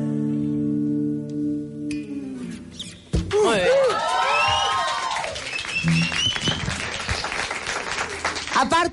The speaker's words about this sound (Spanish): merecen un aplauso tanto en redes sociales como acá, porque ayer recibieron un disco de doble platino por más de 120 mil copias vendidas.